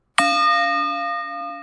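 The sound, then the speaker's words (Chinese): A single singing bowl chime from the Insight Timer meditation app, set as the timer sound, rings out with a sharp onset, then a steady, shimmering sustained tone with layered overtones that slowly fades. No voices. “那通常侃侃就是用一个波的声音。”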